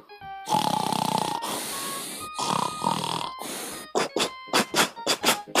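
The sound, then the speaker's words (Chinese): A voice imitates a father mole's loud, raspy snoring: three long drawn-out snores, then a quickening run of short, sharp snorts like a train picking up speed. “呼噜火车出发了，鼹鼠爸爸的卧铺车开起来了。”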